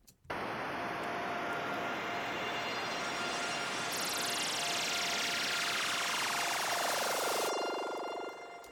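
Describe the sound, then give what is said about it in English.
A sustained, band-passed synth pad in a music track, played from bar 23 and sent to reverb, with a wobbling tremolo that seems to pan from side to side. A bright filter sweep glides downward midway before the pad cuts off. “I said I like tremolo, and this is moving from left to right.”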